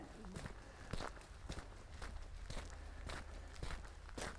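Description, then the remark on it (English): Steady footsteps of a hiker crunch along a hiking trail just out of the woods at an even walking pace, about two steps per second, fairly loud over a low, constant rumble of wind. “If you ever get out hiking, if you're watching or listening to this, and yeah, I, I yammer on a lot while doing this, but there's a lot of the hike where it's just the sound of my feet.”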